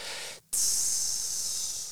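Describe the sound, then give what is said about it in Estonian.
A voice imitates meat sizzling on a grill with a steady, breathy hiss that pauses briefly, then returns louder and brighter, holding for over a second. Fairly loud, with no other sounds. “susised võiks lihaplaadide peal.”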